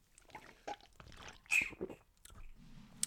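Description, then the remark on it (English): A quiet sip from a drink: soft wet slurping and liquid sounds over a few seconds, followed by a faint swallow and a brief low exhale. “Um, take a sip of my drink.”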